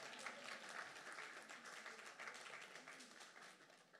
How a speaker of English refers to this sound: You flew from New Zealand on Thursday. Well, that deserves a round of applause.